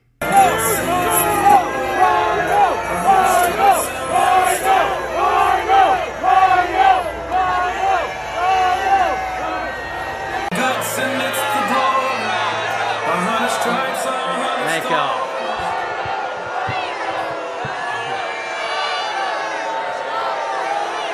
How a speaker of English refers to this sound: Now, the crowd didn't just boo Lindsey Graham, they let him know exactly why they were booing him.